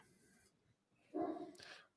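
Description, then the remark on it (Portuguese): A dog gives two quick barks in succession, fairly muffled, during a live stream, following a moment of quiet background noise. “o dia inteiro não late, o dia inteiro não late. Você começa a fazer live e late”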